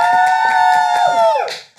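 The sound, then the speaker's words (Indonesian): A long, steady shouted cheer applauding Marriott, at the Marriott Executive Apartments Mayflower in Jakarta, holds one high note, then slides down in pitch and fades near the end, while a few rhythmic claps beat underneath. “Tepuk tangan buat Marriott.”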